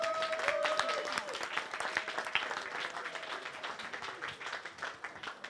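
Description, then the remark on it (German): Sustained audience applause at a handball match after a 32–23 win over TSV Hannover Burgdorf, a dense patter of many hands clapping at steady volume that thins slightly toward the end, with faint whistles and cheers in the first seconds. “Mal einen großen Applaus bitte.”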